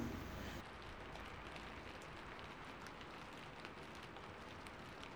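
Rain patters steadily against the front windshield of a car, a soft continuous hiss sprinkled with faint individual drop ticks, fairly quiet and without any voices.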